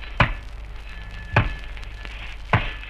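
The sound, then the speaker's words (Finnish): Three sharp, evenly spaced chopping strikes, about one per second, ring out over a steady low rumble as about ten lumberjacks fell large spruce trees with axes at a snowy forest logging site a short distance away. “Tahdikkain iskuin hirveitten terät iskevät puiden runkoihin.”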